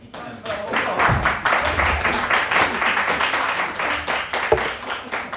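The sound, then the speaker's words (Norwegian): A small group claps steadily for several seconds, dense overlapping hand claps with a few voices murmuring underneath as they cheer a toast celebrating the first Pride held in Moss, Norway. “Skål og klappe! Klappe.”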